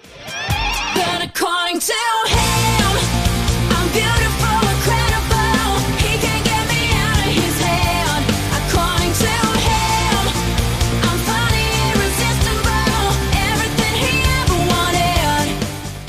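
A loud, energetic pop-rock song plays with driving drums, distorted guitar and a sung melody, opening with a few sharp stop-start hits before settling into a steady full-band groove.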